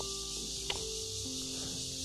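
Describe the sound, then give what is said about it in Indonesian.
A dense, steady chorus of crickets chirping outdoors in the Yonghe city forest, forming a continuous high-pitched shimmer with a faint low hum beneath and a single brief tap partway through. “cuitan jangkrik-jangkrik di tengah hutan kota Yonghe.”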